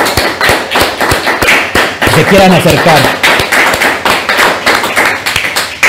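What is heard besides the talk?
audience applause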